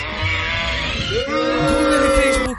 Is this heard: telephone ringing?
no